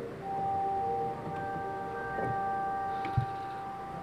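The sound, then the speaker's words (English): Chimes ring out in a few struck notes whose tones hang and overlap in a sustained shimmer, with a soft thump partway through and no voices. “It has chimes here, which would uh, put Big Ben to shame.”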